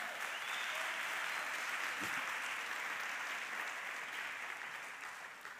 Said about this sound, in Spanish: Dale un aplauso al Señor, amén.